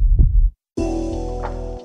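A deep, muffled heartbeat thumps low, then after a short silence a sustained, buzzing tonal drone swells in and holds to the end, with no voices.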